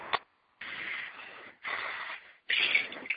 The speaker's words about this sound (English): Here's some guy snoring on the line.